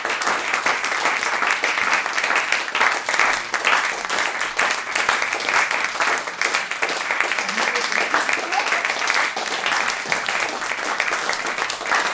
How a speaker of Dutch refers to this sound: Maar het schijnt dat als je een tijd klapt, dat je dan na een tijdje synchroon klapt.